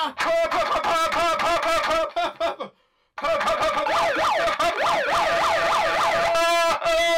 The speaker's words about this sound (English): To be fair, that's the first time we've really abused the rave horn.